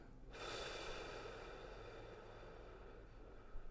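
A single long, deep breath drawn in through the nose during a guided breathing exercise, steady with a hissing, slightly snorting airflow that lasts several seconds without any talking.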